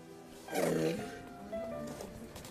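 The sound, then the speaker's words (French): A large, dying zoo animal, recorded at the zoo, lets out a strained, groaning breath that swells and then fades, followed by a quieter, drawn-out rasping moan, fairly loud over a faint background. “Mais t'en en train d'agoniser, OK.”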